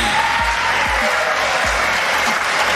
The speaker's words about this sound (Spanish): muy bien que aplaudan.